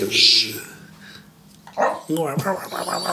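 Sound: small dog whimpering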